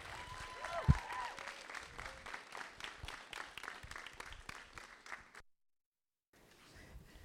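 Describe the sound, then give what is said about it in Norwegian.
An audience breaks into dense, steady applause welcoming two speakers onstage at a live event, lasting about five seconds, with a short sliding whistle early on, before the sound cuts abruptly to silence and then faint murmuring returns. “Begynn å klappe.”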